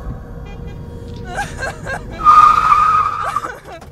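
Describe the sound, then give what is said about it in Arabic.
A car brakes hard as it is stopped quickly, its tires letting out a loud, sustained screech for about a second over a low engine rumble before the skid fades out. “طلبت أمي من حمزة إيقاف السيارة بسرعة”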